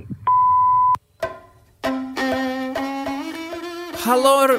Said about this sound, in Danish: Hello, please leave a message after the tone.